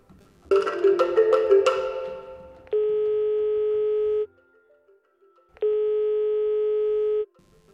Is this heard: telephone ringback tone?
yes